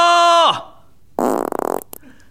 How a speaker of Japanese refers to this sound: へをうまく使っていますね。非常に良いへです。確かに三種類を使いこなした。